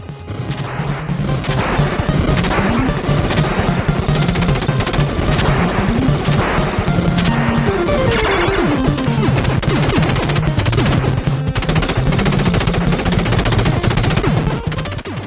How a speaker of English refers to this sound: Uh, that is Contra on the NES.